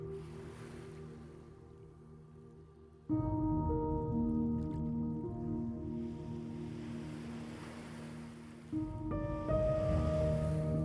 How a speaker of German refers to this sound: Du beobachtest, wie die Wellen an Land brechen in ihrem gleichmäßigen Rhythmus aus Ebbe und Flut.